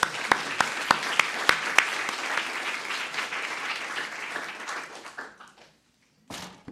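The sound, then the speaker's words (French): An audience breaks into steady applause, a dense rush of many hands with a few sharp, loud claps standing out at first, then gradually thinning and fading out before a brief final burst. “Et je vais maintenant, on peut vous applaudir.”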